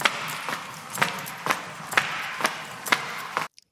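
Running footsteps pound out a steady, quick rhythm, about eight heavy strides over a dense, noisy background wash, ending abruptly in silence.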